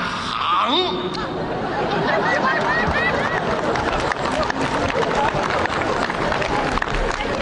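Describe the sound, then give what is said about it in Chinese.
Steady, dense audience applause during a performance, lasting the whole stretch, a thick wash of clapping mixed with crowd chatter and scattered laughter, loud and unbroken from start to finish. “还鼓掌了？这掌废了。”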